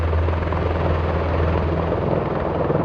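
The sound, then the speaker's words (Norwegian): Steady, loud drone of two combat helicopters circling in the air as the Algerian military surrounds a facility, a continuous low throbbing rotor hum with a broad rushing wash on top, unbroken throughout with no voices. “To kamphelikoptre sirkler i luften.”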